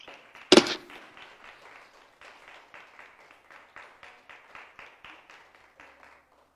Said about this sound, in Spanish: ¿Por qué no le da una ofrenda de palmas al Señor?